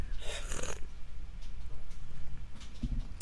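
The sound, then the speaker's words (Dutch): An airy slurp of hot tea, one noisy sip lasting about half a second, followed by quieter breathy rustles and low background rumble. “een slurpen mag, hè?”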